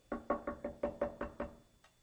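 A rapid, steady series of about eight knocks on a door, fairly loud, evenly spaced over under two seconds with no voices.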